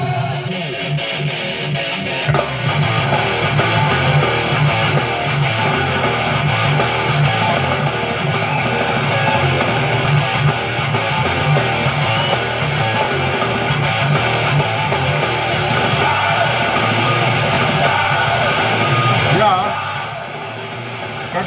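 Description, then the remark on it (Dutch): Loud, dense heavy metal by a band, with distorted guitars churning out wild, driving riffs and pounding drums, with harsh shouted vocals over the top, playing continuously before cutting off near the end. “het gaat om woest, woest gitaarwerk. Uh, doorspekt met geschreeuw, gebeuk.”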